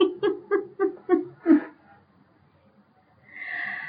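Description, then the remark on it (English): A quick run of short, rhythmic breathy gasps builds into one sharp, loud sneeze. A brief hush follows, then a voice starts speaking. “Ah, oh, bless you.”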